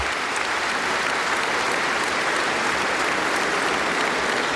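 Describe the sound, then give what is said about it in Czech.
Sustained, dense standing ovation from 800 guests in the Vladislav Hall of Prague Castle, applauding the new President of the Czech Republic, steady and loud throughout with no gaps. “Všech 800 hostů povstalo a bez to je tleská novému prezidentovi České republiky.”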